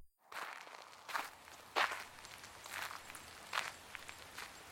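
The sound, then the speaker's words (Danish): Steady footsteps in new yellow rubber boots squelch across wet ground at an even walking pace as someone walks out in the rain to the supermarket, with a soft constant hiss of rain filling the background. “I de nye gule gummistøvler går Geo endnu en gang ud i regnvejret.”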